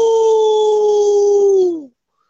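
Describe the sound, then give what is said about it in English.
A single long, steady howl imitated by a human voice, loud, holding one pitch for nearly two seconds before sliding down and cutting off into silence. “It's the wolf of steam. Ow!”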